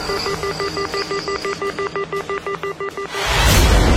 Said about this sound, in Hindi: विक्रम कुछ पूछ भी पाता इससे पहले ही उधर से स्टेशन मास्टर ने फोन रख दिया था